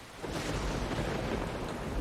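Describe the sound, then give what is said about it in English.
A steady, dense wash of thunderstorm noise, heavy rain and gusting wind, rumbling continuously at moderate volume with no voices and no distinct thunderclap standing out. “look at this ambience this is amazing I, I love this storm that we're in i love it right wow it's really good”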